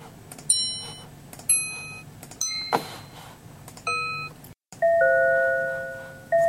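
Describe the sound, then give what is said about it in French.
A minute repeater watch chimes the time: a few bright, ringing metallic strikes spaced apart, then quicker two-tone ding-dong pairs, clear with no talking. “Disons, le challenge du projet, c'était de créer de toute pièce une fonction sonore dans une montre qui est appelée répétition minute.”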